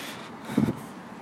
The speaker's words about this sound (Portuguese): Ó, tá passando um carro agora.